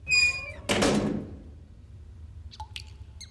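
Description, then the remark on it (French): A heavy metal prison cell door creaks briefly, then shuts with a loud, resonant thud as a guard closes it, followed after a pause by a few small metallic clicks of the lock. “J'entrai, et il referma aussitôt la porte.”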